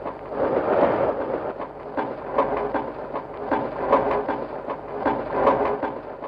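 Railway train noises in Pierre Schaeffer's musique concrète railway étude, Etude au Schéma de Fer: a steady, muffled rumble of rolling machinery with rhythmic chugging surges and sharp metallic clanks repeating throughout, dense and continuous with no voices.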